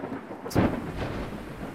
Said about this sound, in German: aber das Geräusch ist so schön in diesen Zeiten, in der Regen dringend gebraucht wird.